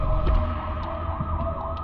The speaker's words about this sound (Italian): il rumore delle esplosioni secondarie della Toyota di Daria Dughina, oltre alle sirene dell'ambulanza e della polizia